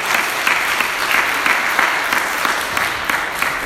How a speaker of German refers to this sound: Applaus für dir.